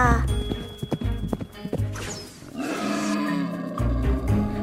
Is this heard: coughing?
no